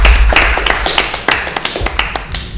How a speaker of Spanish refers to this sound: Un aplauso, ¿no? Gracias, gracias.